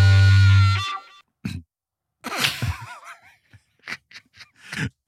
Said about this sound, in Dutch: Ben je nog even een soort uh, eh, voorkuchje of ja, zo. Ja, een soort hoest die geen hoest is.